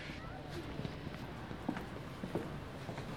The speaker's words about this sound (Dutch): We lopen nu de trap af en het eh, station binnen.